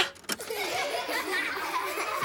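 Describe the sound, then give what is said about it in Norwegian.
A burst of canned crowd laughter plays from a laugh button, many voices chuckling and cackling together in a steady, moderately loud wash after a brief click at the start. “Eh, finner du latterknappen også? Ja, jeg tror det er denne.”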